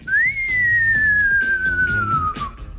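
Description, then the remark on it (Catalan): A single long, sustained human whistle made without moving the lips, rising quickly then gliding slowly downward in pitch for nearly three seconds, loud, with faint background murmur underneath. “Eh, si es tan buena, hay que alargar el silbido.”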